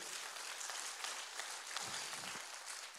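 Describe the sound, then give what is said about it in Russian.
A church audience applauds to welcome first-time visitors, a steady wash of many hands clapping at once, dense and sustained throughout with no talking over it. “Давайте их поприветствуем еще аплодисментами”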